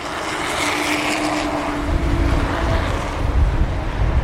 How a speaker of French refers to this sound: c'est l'autoroute que vous entendez en fait exactement la VRU, la voie rapide urbaine